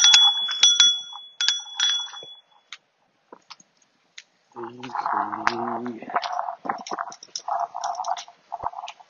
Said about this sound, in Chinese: 哎，滴滴，哎，我自己滴滴一下子。啊，对，我这有车铃哈，但有时候车铃显得有点愣。